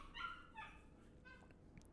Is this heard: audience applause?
no